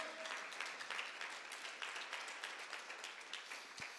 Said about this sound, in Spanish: Dale un aplauso, Rey, con todo tu corazón.